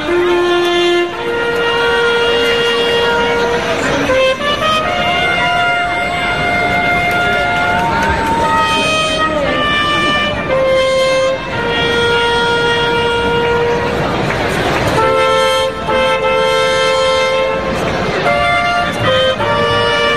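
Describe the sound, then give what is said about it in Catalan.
A ceremonial trumpet fanfare, played by the Municipal Council's trumpeters at a town festival in the Plaça de la Font after the opening proclamation, sounds loudly with long sustained brass notes stepping between pitches over about twenty seconds, backed by faint outdoor crowd murmur. “Els trompeters del Consell Municipal seran protagonistes en altres moments solemnes de la festa.”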